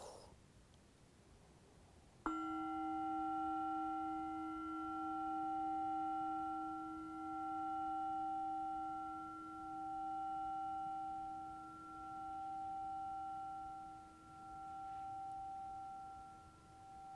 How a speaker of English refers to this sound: last few breaths, stay as the bell goes off.